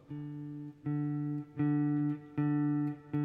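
A guitar string picked with a plectrum, the same low note struck five times at a steady pace, each ringing out fully before the next attack; clear and without any talking.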